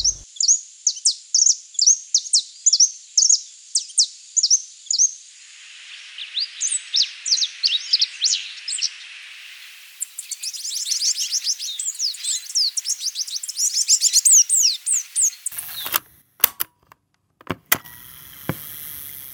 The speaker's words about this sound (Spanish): La hembra posee un diseño simple y esparda. Por ser tan llamativa, esta especie es perseguida como ave de jaula. Nota de voz 5. Aquí están. Ya los tengo al alcance del micrófono. Grabo sonido directo.